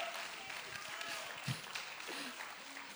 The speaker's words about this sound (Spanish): prepárese para aplaudir.